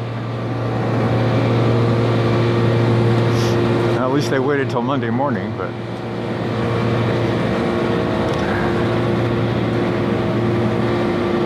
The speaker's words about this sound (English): got a big suction tube stuck down a storm grate.